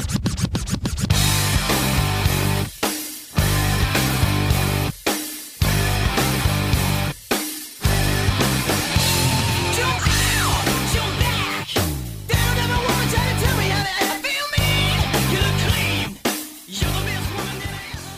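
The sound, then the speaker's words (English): A loud, energetic rock song with driving drums, heavy distorted guitars and a dense full sound, broken by a few brief stops and hits along the way. No one talks over it. “cool track, but not exactly the mellow pop that we've come to know and love”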